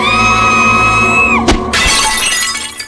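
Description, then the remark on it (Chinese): A loud, high-pitched scream inside a room holds steady for over a second, then drops off as a sharp crash breaks in, followed by the bright, scattering clatter of a mirror shattering. “大厅的客人新郎听到房内的尖叫声及碎裂声，冲了进来。”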